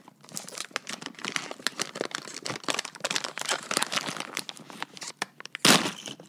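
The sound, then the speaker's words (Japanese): A plastic bag taken out of a box is opened, crinkling and rustling continuously in dense, irregular bursts of bright crackling, ending with a louder tearing rip near the close. No one speaks. “それではまず箱をね開けるとこからいきますよ袋を出します”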